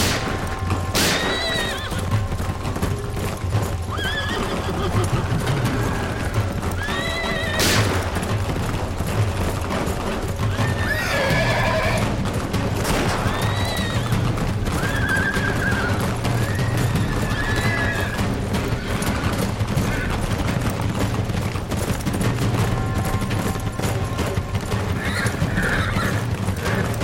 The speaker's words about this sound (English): The rider kept galloping in circles, herding and shooting the lowlives.